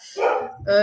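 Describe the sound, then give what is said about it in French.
A guide dog gives two quick, loud barks, the second slightly higher and sharper than the first, with no talking over them. “là, c'est mon chien guide d'ailleurs qui s'est exclamé en disant Et je suis là moi aussi”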